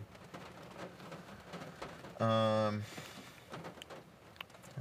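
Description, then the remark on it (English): A sudden rain shower: a steady wash of rain patters, scattered drips ticking through it, while a person briefly hums a hesitant syllable partway through. “damn, the rain came out of nowhere.”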